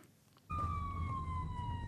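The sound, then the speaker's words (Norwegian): A police car siren starts abruptly after a brief quiet moment, a loud steady wail with a slowly falling pitch over a deep rumbling engine or road noise. “Sirener og dagens utstyr er ikke nok.”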